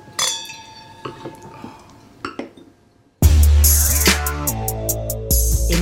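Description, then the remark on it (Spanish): Wine glasses clink together several times in a toast, each touch leaving a bright, clear, ringing tone; about halfway through, loud music abruptly begins. “Salud, muchas gracias”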